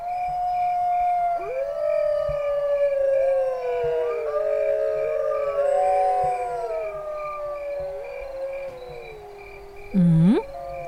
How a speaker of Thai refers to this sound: เสียงหมาหอน หอนกันเป็นฝูงเลย เขาว่ากันว่า หมาหอนเนี่ย แสดงว่ามันเห็นอะไรบางอย่างบางอย่างที่คนมองไม่เห็น แล้วยิ่งหอนรับกันเป็นฝูงงแบบเนี้ยต้องเห็นอะไรบางอย่างแน่ๆเลย